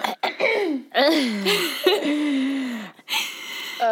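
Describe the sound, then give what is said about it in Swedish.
Someone clears their throat several times, a string of four rough, voiced rasps that slide downward in pitch, with short gaps between them and no other sounds around. “Fan, nu måste jag harkla mig.”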